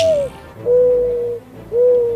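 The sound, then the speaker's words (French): A mourning dove coos in three mellow, low hooting notes: a short falling one, then a long drawn-out coo, then another after a brief pause, with no one talking. “le dernier vol de la tourterelle triste, version originale de Sad Turtle Dove's Last Flight, un thriller d'ornithologie.”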